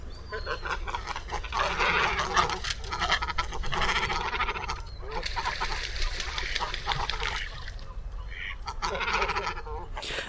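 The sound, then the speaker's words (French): A crowded colony of cormorants keeps up loud, harsh, guttural croaking and grunting, with dense overlapping calls that briefly thin out twice before swelling again. “Si vous vous êtes baladé près de grandes étendues d'eau, vous avez déjà peut-être rencontré certaines espèces de cormorans.”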